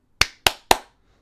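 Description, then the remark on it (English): Three sharp hand claps in quick, even succession, crisp, each with a short decay, with no talking over them. “I should clap after every word.”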